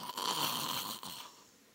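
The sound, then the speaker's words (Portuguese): A preacher imitates a snore with his voice, one drawn-out raspy snort lasting about a second, fairly loud, then trailing off into quiet. “ó, roncando babando.”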